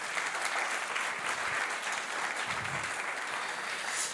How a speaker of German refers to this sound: Herzlich willkommen auch an alle, die das erste Mal heute dabei sind und das erste Mal einfach zu uns den Weg gefunden haben in die FCG Lichtenfels. Komm, lass uns mal einen Applaus geben für alle, die heute das erste Mal da sind.